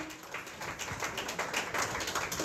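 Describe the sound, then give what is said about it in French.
A crowd applauds steadily, many hands clapping at once in a dense, continuous patter that holds at a fairly even, moderate level throughout, with no voices standing out. “Applaudissez pour lui, s'il vous plaît.”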